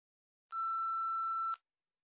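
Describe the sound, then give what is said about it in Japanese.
A single steady electronic answering machine beep, sounding before a recorded phone message, lasts about a second with a clean start and stop, clear, with silence before and after. “2番留守番電話のメッセージを聞いています。”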